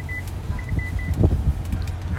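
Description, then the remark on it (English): A truck's alert chime beeps in a quick series of short, high tones over a low engine rumble inside the cab, then stops while the idling hum continues. “And uh, sorry, my truck was beeping at me.”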